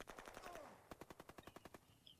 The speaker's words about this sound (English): So uh, uh, yeah, this scene is an example of what I was talking about. There's no music here except for the, uh, the bugle in the background. Let them all come down. Just lots of gunfire.